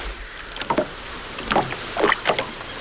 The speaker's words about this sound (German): Das Unwetter an der Küste hatte sich inzwischen beruhigt und schon bald stellte Ashley den Motor ab und ließ das Boot treiben.